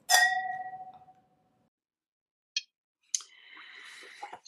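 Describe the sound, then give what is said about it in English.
Glasses clink together in a toast: one bright ringing clink that fades out, then a couple of quicker, lighter clinks and some soft rattling. No one speaks. “Cheers to leaving.”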